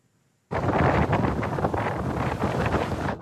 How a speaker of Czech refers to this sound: Proti tomu, co podle meteorologů bouře Kíron přinese během noci, přitom tyto vlny představují jen slabě rozčeřenou hladinu.